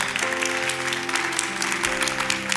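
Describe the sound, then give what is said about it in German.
A church audience applauds a speaker steadily and fairly loudly, a dense wash of many hands clapping at once, while sustained keyboard-like tones hum underneath throughout. “Lass uns einen Applaus geben”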